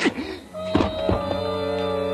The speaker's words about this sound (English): He hit me with the gun.